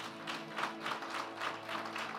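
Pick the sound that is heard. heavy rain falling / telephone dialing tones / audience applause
audience applause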